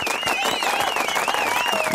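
Steady applause from many hands fills the two seconds, a dense continuous patter of claps with a wavering high-pitched tone gliding over it.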